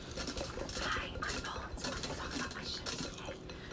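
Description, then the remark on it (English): Takeout containers of crab rangoons and a boba tea being shuffled around, with a steady stream of rustling, scraping and light clinks and no talking. “miscellaneous noises, including crab rangoons and boba tea being shuffled around, may bring lovely audio to your ears as well.”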